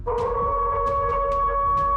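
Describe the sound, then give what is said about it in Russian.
Long, steady wolf howls hold a high, tonal pitch throughout, fairly loud and close, with a few short breathy bursts rising over them. No one speaks. “Чувствую, волки уже близко!”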